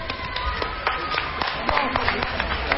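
A small group applauding, with scattered, irregular claps sounding steadily for about three seconds at moderate volume rather than a thunderous ovation.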